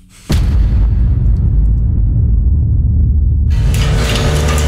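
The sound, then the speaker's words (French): A sudden loud boom opens into a sustained deep rumbling roar, like a cinematic explosion, with a brighter crackling surge rising near the end. No one speaks. It comes from a film trailer. “Je vous propose de revenir un petit peu en arrière et d'écouter la bande-annonce que Michael va découvrir.”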